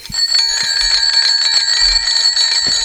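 A bell rings continuously in a fast, bright jingling trill, loud and sustained for a few seconds, with no talking over it.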